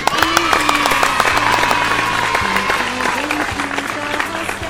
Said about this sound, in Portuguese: Palmas para esse lindo poema!